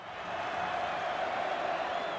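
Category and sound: crowd, stadium crowd cheering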